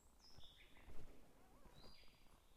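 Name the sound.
birds singing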